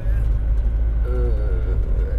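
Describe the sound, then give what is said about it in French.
A steady, loud low-pitched engine and road rumble fills the inside of a moving car, with a person's voice briefly audible over the constant drone. “Je suis en voiture hein, évidemment, vous avez l'habitude.”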